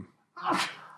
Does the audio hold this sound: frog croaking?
no